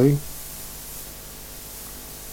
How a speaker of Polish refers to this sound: No niestety lewy kanał trochę głośniej syczy, ale tutaj no nie naprawię tego.